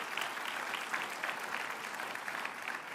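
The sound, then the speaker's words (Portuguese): An audience applauds for Jesus at a church service, a dense wash of many hands clapping at an even, sustained level with no voices standing out, holding the same intensity throughout. “Dê para Jesus mais uma forte salva de palmas, em nome de Jesus.”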